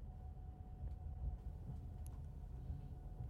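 A steady low rumble of a train carriage rolling along, with continuous droning noise and faint rattles and squeaks; no voices, just the even hum of travel.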